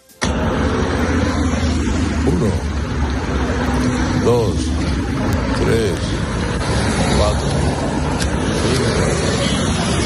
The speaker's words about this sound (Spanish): Ayer se fue a la desaladora de Torrevieja, casi, casi sin escolta iban los coches uno detrás de otro, el sonido de los coches, Doce coches uno detrás de otro.